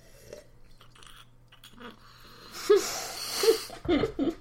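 Wet slurping as air is drawn through a mouthful of tannic, acidic wine to open it up, a hissing whoosh with bubbly gurgles that builds over the last couple of seconds after a quiet start.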